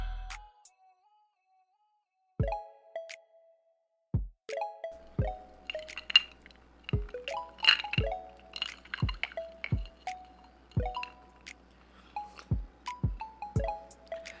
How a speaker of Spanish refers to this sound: Eso que acabas de escuchar es una buena copa de whisky en esta noche de miércoles a las 10 y 36 de la noche para comenzar a acompañarte con mi podcast.